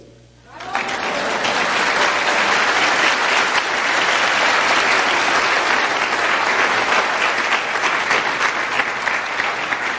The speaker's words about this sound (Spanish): Eso se oyó muy bonito. Pueden aplaudir.